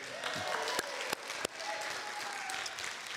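An audience in upstate New York applauds steadily for a birthday, a dense wash of many hands clapping at an even, sustained level, with a few sharper claps standing out briefly.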